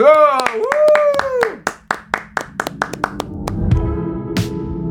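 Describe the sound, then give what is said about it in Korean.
A burst of sharp, evenly spaced hand claps from a studio audience, about a dozen in quick steady rhythm, welcoming a live song performance, follows a short stretch of voices, then fades into a low murmur of sound. “네, 자, 박수로 청해 드리겠습니다.”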